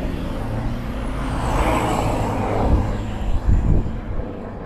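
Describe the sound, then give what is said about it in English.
A loud ute engine roars past, a deep throaty rumble that swells and peaks midway before easing off, with no voices over it. “And um, everyone with their loud utes think they're very cool.”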